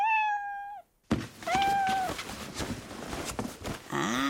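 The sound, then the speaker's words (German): A tomcat gives a drawn-out, wavering meow, then a brief clunk and rustling clatter, followed by a second meow and a shorter rising one at the end, fairly loud. “Ach, du schüttelst den Kopf, mein Katerchen.”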